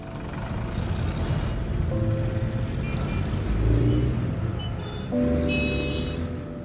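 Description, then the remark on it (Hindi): A car engine rumbles steadily, loud and continuous, with whining tonal shifts as it revs and changes speed while the car is driven to the office. “अर्जुन के लगे गाड़ी रहे कार वो अपना कार से जास”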